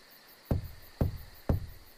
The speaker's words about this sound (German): Deine Hand berührt den kühlen Metallklopfer. Dreimal schlägst du gegen die Tür.